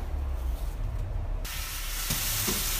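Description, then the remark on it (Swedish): Parma ham sizzles in a hot, dry frying pan, a dense crackling hiss that starts softer and swells to a bright, steady sizzle halfway through, fairly loud with no voices. “Eh, ja, uppe på, uppe på melonerna ska det vara eh, parmaskinka stekt i torr panna.”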